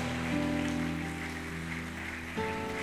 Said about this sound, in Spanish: Vamos a darle palmas de alabanza al Espíritu Santo